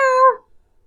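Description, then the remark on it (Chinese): A single short, high-pitched kitten meow, bright and tonal, lasting under half a second and dipping slightly in pitch as it fades, followed by silence. “嗯嗯，别踩着我的尾巴。喵喵！”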